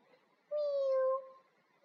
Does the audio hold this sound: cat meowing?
yes